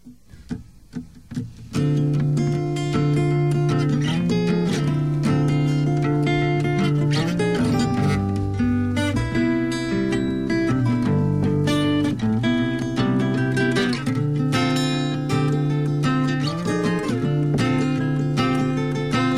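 A Thai band's song starts after a couple of seconds of faint clicks, then plays loud and full with steady drums, sustained chords and a driving rhythm throughout.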